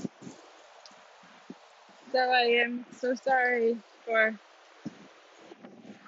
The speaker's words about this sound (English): any crazy wind sounds you can hear. You might hear my jacket or the leaves flying. It's really wild actually there moving fast.